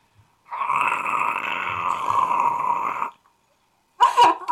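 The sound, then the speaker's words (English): A voice imitates a fork grinding in a garbage disposal: a loud, harsh, rattling buzz held steadily for about two and a half seconds, then a short burst of noisy vocal sound after a pause. “he's making a noise that I, I assume sounds like a fork in a garbage disposal.”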